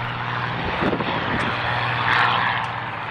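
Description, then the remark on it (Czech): A Zlin Trener light propeller plane's engine drones loudly and steadily, a low buzzing hum with broad rushing noise that swells slightly as it passes. No one speaks. “To, co slyšíme, je zvuk letounu trenér.”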